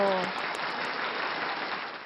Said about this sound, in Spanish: Y ellos nos dieron un bolso de premio, así que un aplauso para ellos. Bravo.